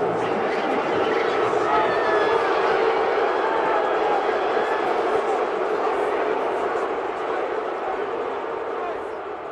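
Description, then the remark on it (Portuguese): A dense arena crowd roars steadily, a thick wash of cheering and shouting voices that holds loud for nearly ten seconds before easing slightly at the end. The crowd in Cleveland is cheering LeBron James's return to the court there. “E depois agora, é, agora pelo, pelo Lakers, que a galera gritando super feliz com a volta dele e honrando o que ele foi.”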